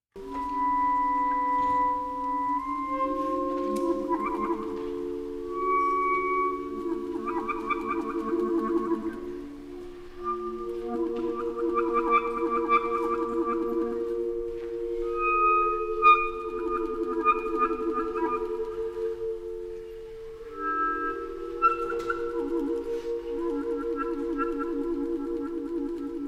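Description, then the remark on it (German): Soft, sustained clarinet tones from the second movement of a virtuosic clarinet work drift slowly through a quiet, airy passage, held notes gliding between pitches with faint overlapping higher lines and no talking. “Äh, wir hören mal in den zweiten Satz hinein, wo die Klarinette ganz feine, fast sphärische Töne spielt.”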